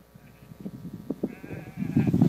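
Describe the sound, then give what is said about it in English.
Sheep bleat in a wavering chorus on a hillside as a shepherd calls them, starting softly and swelling into a loud cluster of overlapping calls near the end, with faint background noise. “He's out on a hillside and he starts calling his sheep.”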